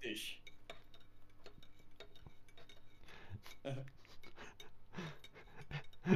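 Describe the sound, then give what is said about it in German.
A spoon stirs coffee in a cup, clinking repeatedly against the sides in a quick, uneven rhythm of light, bright taps, with faint low background hum and occasional soft rustles. “rührte fleißig von dem Sprecher die Kaffee um”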